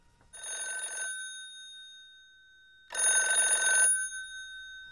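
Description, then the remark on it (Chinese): A telephone rings twice, each burst a bright, trilling electronic bell lasting about a second, separated by a pause. The second ring is a little louder, and no one speaks. The call is from an elderly real estate agent. “中介大爷打电话要主人公赶快去一趟”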